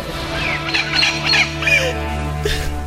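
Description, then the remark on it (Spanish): An injured parakeet, accidentally squashed, squawks in a few short, harsh bursts, its shrill calls clustered near the middle, over a steady low hum with no talking. “Y pasó un accidente y le, y le apachurramos a su perico y vean cómo se puso.”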